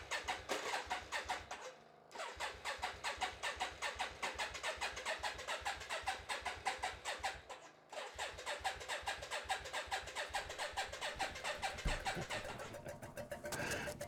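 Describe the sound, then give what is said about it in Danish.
A motorcycle engine runs loud with a steady, pulsing rumble, dipping briefly twice as if shifting gear before picking up again. No one speaks. “Så, så den der lyd af, af motorcykel der, og duft, ja, ja.”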